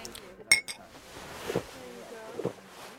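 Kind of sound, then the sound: household object, glasses clinking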